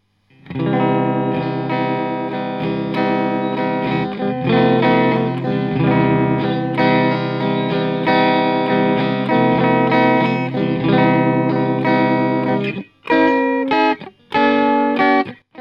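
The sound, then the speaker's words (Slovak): An electric guitar, a 1993 Mexican Stratocaster played through a Vox AV60 semi-tube combo amp, plays sustained, heavily processed chords through an effects pedal, thick and shimmering with distortion and chorus, then ends in a few short, choppy stabs separated by brief gaps. “Nebudem zachádzať do úplných technických detailov, nechám za mňa hovoriť radšej zvuk gitary, respektíve efektu, keďže lepšie raz počuť zvuk gitary, ako to počuť odo mňa.”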